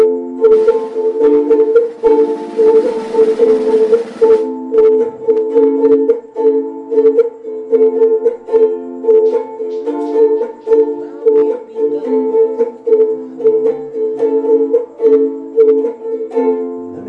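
A ukulele strums a steady run of chords, bright plucked notes ringing in a regular rhythm for the whole stretch, with a brief scratchy burst near the start and no voices.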